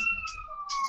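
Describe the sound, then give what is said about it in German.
The alarm siren of a replica movie car suddenly goes off, a wailing, steady, slowly gliding high tone, fairly loud, over a faint low background rumble with no voices. “Das ist das äh, Auto äh, der Ghostbusters, was jetzt hier plötzlich Alarm macht.”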